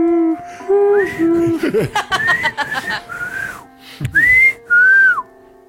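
A loud whistled tune from the video game Deadly Premonition, with sustained and gliding notes in a playful melody, broken by a couple of short bursts of laughter partway through before the whistling resumes.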